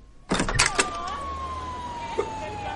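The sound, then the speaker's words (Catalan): A police siren wails steadily in a street full of police, its tone wavering then holding and sliding slightly lower, heard behind a burst of clattering and rustling at the start. “Està tot el carrer ple de policia.”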